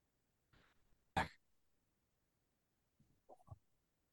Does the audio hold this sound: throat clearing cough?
yes